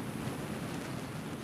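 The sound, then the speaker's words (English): A dense, continuous whoosh of millions of Mexican free-tailed bat wings beating the air as the bats come down at sunrise near the entrance to Bracken Cave, on a ranch outside San Antonio, Texas; a steady rushing roar much like wind or surf, fairly loud and unbroken, with no voices. “That sound is wind passing over millions of bat wings.”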